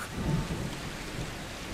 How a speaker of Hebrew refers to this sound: מבעד לחלון הכיתה הגשם ירד, ונראה היה שהוא יימשך לאורך זמן רב.